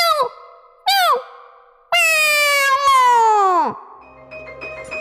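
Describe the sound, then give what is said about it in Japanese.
A greedy old man in a folk tale imitates a cat to drive mice away: two short, sharp meows, then a long, loud, drawn-out meow that slides downward in pitch, followed by faint background sound. “欲張りじいさんは、ネズミたちを追い払おうと、猫の鳴き声を真似ました。”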